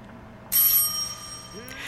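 A doorbell rings out once with a bright, metallic chime that lingers and fades over about a second, followed by a faint second touch of the bell, with no talking.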